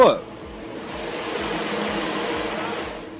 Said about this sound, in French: on va mettre justement un sorbet qu'on vient de préparer dans le surgélateur où euh, il y a vraiment beaucoup de bruit avec des turbines et tout. C'est quoi exactement le surgélateur bah, C'est euh, une grosse, un gros frigo